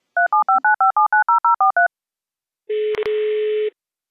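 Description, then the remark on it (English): A rapid string of about eleven touch-tone dialing beeps as a guest is dialed into a call, followed after a short pause by a steady telephone tone lasting about a second, broken by a couple of clicks. No voices. “So without further ado, let's dial her in.”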